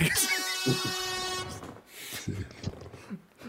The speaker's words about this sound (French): Camion qui vient de passer.